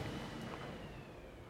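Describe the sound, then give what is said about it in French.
A garbage truck rumbles by in the street, a steady low, heavy mechanical drone with gritty noise, slowly fading over a short moment, no voices. “C'est un camion poubelle. Camion poubelle qui passe dans la rue.”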